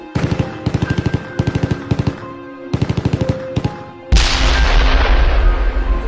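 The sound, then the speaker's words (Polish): Loud bursts of rapid machine gun fire in Ukraine as the invasion began, heard in the background of a phone call, several short volleys in quick succession, then a heavy roaring blast that fills the rest. No voices. “W tle słyszeliśmy odgłosy broni maszynowej.”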